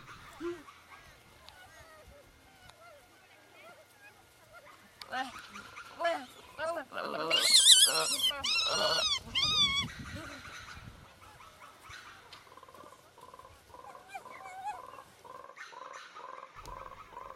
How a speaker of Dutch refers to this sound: Gelada's maken veel lawaai. Je hoort ze al van verre. De hele dag zitten ze met elkaar te babbelen. Soms lijkt het of ze precies zo praten als mensen. Ze kunnen dezelfde klanken maken als mensen.